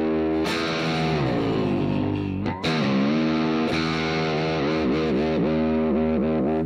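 The intro of a synthesizer-based rock tune played on guitar: a heavily distorted, buzzing tone on the low E string, rich in harmonics, sliding and bending in pitch with wobbling, warbling whammy-bar swoops toward the end, played loud and continuous without any talking.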